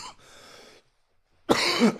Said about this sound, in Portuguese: Eu tenho mesmo que editar esta tosse, não tenho? Desculpem lá.